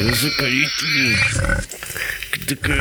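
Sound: pigs squealing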